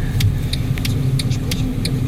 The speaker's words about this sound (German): also ich habe auch das Gefühl, die Autos auf dieser Ebene fahren immer schneller.